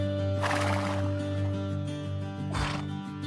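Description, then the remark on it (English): A horse neighs, one drawn-out whinny followed a moment later by a shorter burst, both loud over a steady low hum. “This was how the tribes in the Bighorn Basin first came to own horses.”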